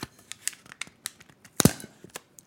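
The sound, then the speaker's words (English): Someone peels open the sealed paper top of a Pringles can: a series of quick, crackly tearing and crinkling bursts, building to one loud rip near the end, with no talking. “So I'm gonna open this up, and I'm gonna let you hear it.”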